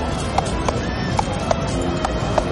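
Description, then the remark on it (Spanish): A horse's hooves clop at an uneven trot as the horse is urged on in a town parade recreating a battle, about six sharp knocks over a steady rushing background, with a brief faint whinny-like tone partway through. “Vamos, tire con ese caballo.”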